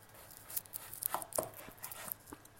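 A knife shaves a thin layer off food each time, going round, in a series of short, crisp scraping strokes, fairly quiet, with no one talking.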